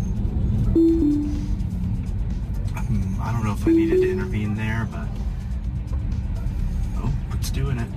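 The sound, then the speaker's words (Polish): Steady road rumble from a Tesla Model 3 in a passing lane overtaking a garbage truck after edging into the opposite lane several times, with a low engine drone throughout and a person talking over it. “Tesla Model 3 zauważyła przeszkodę. Najpierw kilkukrotnie wychylając się na przeciwny pas ruchu oceniła możliwość wykonania manewru, po czym zrobiła to.”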